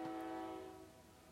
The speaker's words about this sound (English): sorry for the train i'm somewhere